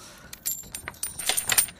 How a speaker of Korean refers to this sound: 오늘 찾아주실 보물소리는 김PD가 들려드립니다. 짤랑 동전 소리예요.